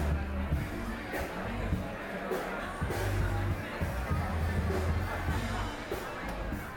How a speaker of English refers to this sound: The didgeridoo would fade out and be replaced by the sounds of people talking loudly, snacking and drinking as a funk or soul band plays in the background and the seagulls swoop at the opera bar.